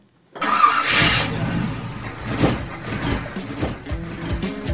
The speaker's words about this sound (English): hey, it sounds like it's time to swap out that old engine for something better